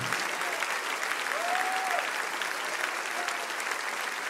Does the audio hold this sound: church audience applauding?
yes